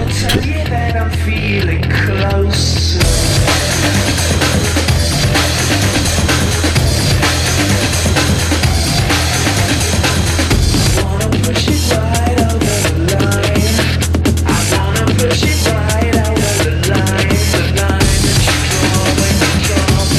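A loud, energetic big beat electronic track plays throughout, with heavy pounding drums, deep bass and dense, distorted synth layers driving steadily forward and continuous, with no voices.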